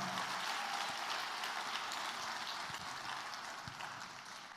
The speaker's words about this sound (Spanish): Ahora dale el mejor aplauso que le hayas dado en una semana de Thanksgiving al Señor.